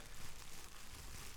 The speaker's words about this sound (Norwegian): I en plastikkpose. Det er lyden av en T-skjorte i en plastikkpose.